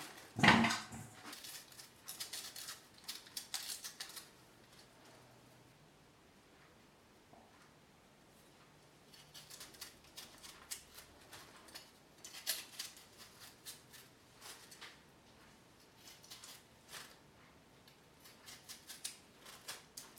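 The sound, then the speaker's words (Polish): Potatoes are peeled with a knife in a spiral motion around each potato: dry scraping strokes in irregular bursts, with a sharp clack at the start and quiet gaps between clusters of rapid shaving sounds. “Ziemniaki zostały obrane.”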